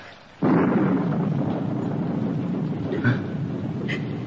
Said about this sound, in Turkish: Ya Rabbi yağmur da dinmedi